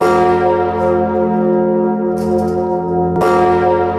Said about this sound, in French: le mythique bourdon que vous entendez, le bourdon Emmanuel, s'éteignait.